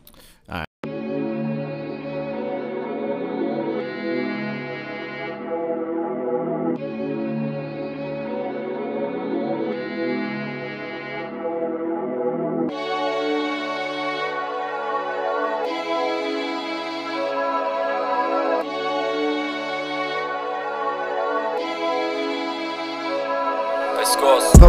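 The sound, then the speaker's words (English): A rough mix of a track from an upcoming rap album plays loud and steady, a looping beat with sustained chords repeating every few seconds, shifting to a brighter, higher pattern about halfway through. “Um, I want y'all to hear the album, so I'm gonna probably do the mix of the rough copy of it.”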